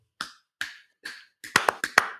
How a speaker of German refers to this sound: Wir haben jetzt ein 5 Minuten Klatsch-Solo.